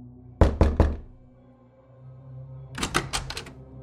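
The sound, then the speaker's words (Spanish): Sharp knocks on a door on a December night, three quick raps followed after a short pause by a faster, more insistent flurry of about five, fairly loud with no voices. “Una noche de diciembre me estaba saliendo de bañar cuando escuché que llamaban insistentemente a la puerta.”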